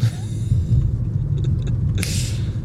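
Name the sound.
car interior rumble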